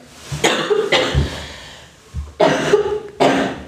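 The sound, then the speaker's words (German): Four sharp, harsh coughs come in two pairs with a short pause between, fairly loud, with no talking. “Hustpause.”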